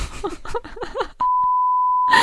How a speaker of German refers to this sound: das piepen wir.